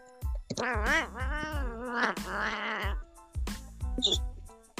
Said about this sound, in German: Die Katze, oder? Habt ihr es gehört?